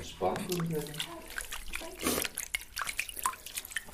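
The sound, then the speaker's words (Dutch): Water is poured over a baby and splashes in a small baby bath, with scattered drips and trickles continuing throughout. A soft voice is briefly heard near the start. “Een beetje water over weer eh, erin.”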